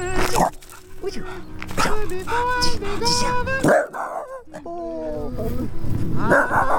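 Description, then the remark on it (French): A small dog whimpers with high, wavering whines and lets out several sharp yips and barks, fairly loud, while a person speaks softly to it. “Un petit loulou. Bah alors eh, bah, Ça va, petit Petit loulou”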